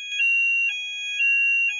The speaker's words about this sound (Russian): А это... Что это? Это у меня пожарная сигнализация, и сейчас я буду эвакуировать, но мы эвакуироваться не будем, потому что она ложная.